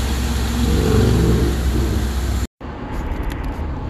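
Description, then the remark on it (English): A car engine hums steadily from inside a moving vehicle, low rumbling road noise filling the cabin, with a brief cut to silence before the drone resumes slightly quieter. “are now in the car.”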